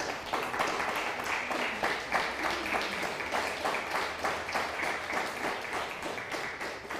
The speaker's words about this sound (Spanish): Un fuerte aplauso a todos los estudiantes en las naciones.